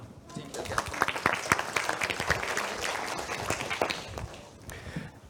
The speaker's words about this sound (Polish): Wielkie brawa!